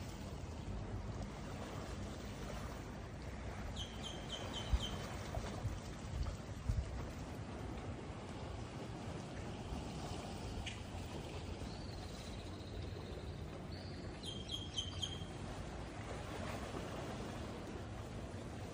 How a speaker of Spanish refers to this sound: Mira qué paz, escuchar el mar.